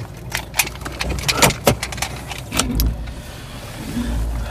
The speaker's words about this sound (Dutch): De motor draait.